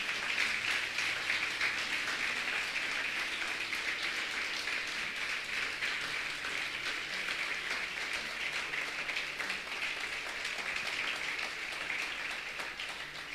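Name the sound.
audience applauding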